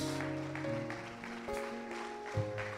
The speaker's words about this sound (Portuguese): Glória a Deus, aplauda o Senhor. Glória a Deus.